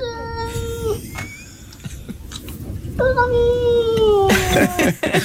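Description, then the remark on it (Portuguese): A cat lets out long, drawn-out meows with wavering pitch, two main calls that rise and fall like sung syllables, almost word-like, with a brief rustle between them. “Mas neste estou inteiramente convencido que o, o gato diz”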